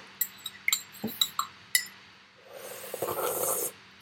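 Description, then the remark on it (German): A spoon clinks against a tea cup in a quick, uneven run of bright, ringing taps, followed by a longer scraping, swirling stir. No one speaks. “Sag doch, löffel nicht für Anfänger bei Tee.”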